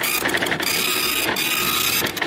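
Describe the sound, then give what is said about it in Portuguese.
A small ticket printer whirs and clicks as it feeds out a ticket, a steady mechanical buzz broken by rapid ratcheting bursts near the start, middle and end, with no one talking. “E tô vendo aqui que tá piscando a luzinha, vai sair mais um ticket aqui.”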